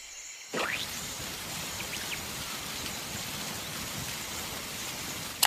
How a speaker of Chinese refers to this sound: 喷泉，你有没有看到加水喷泉呢